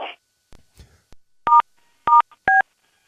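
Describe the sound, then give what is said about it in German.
Three short, loud touch-tone keypad beeps from a 1990s push-button telephone, each a steady dual-pitch tone, pressed at an uneven pace after a few faint clicks and handling noises. No one speaks. “90er Jahre Wähltastentelefon, ja?”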